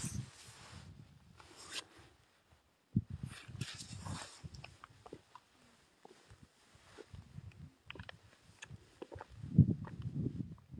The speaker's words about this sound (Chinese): 但是有风声，这边就是跟雪，跟下雪的日日子差不多，跟冬天差不多。